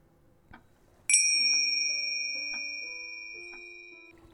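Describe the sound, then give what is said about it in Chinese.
A single bright bell chime is struck once, marking the end of a guided weight-loss hypnosis session. It rings out with clear high overtones and a long, slowly fading sustain over a few seconds. No one speaks over it. “铃声响起，请张开眼睛，回到现实世界。”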